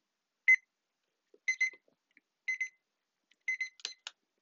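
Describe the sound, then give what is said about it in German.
A shrill electronic alarm clock beeps in short bursts about once a second, the bursts growing from single to clustered beeps and quickening toward the end, moderately loud with no talking. “aber es ist schön, einen zu haben, damit ich weiß, wie viel Uhr es ist, um danach noch drei Stunden weiter zu pennen.”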